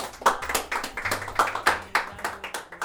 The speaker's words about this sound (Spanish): un aplauso para él.